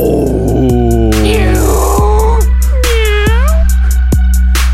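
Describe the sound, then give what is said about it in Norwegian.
A person loudly imitates an animal roar, producing a few strained, drawn-out vocal growls with sliding pitch over a steady low hum. “du ble flau når du skulle lage Ja, dyrelyd.”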